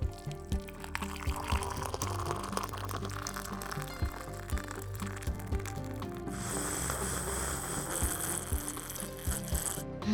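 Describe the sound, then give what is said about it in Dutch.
Black coffee pours steadily into a cup for several seconds, a continuous trickle with faint clinks and a brighter, hissing stream toward the end. “Ja, koffie, zwarte koffie. Ja, ja, dank je.”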